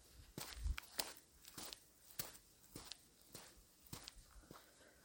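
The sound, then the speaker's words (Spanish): Footsteps from shoes on the ground, a steady series of about nine crisp steps at a walking pace, with no voices. “sonido de mis zapatos al pisar el suelo.”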